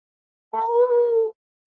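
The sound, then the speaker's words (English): A dog lets out a single drawn-out, whiny yelp, fairly loud, lasting under a second before silence returns. “That's the dog.”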